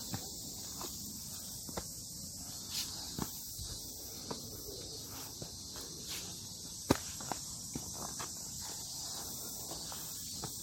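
Irregular footsteps crunch along a dirt mountain trail on a steep climbing course at a steady walking pace, while a constant high insect drone from crickets or cicadas fills the background.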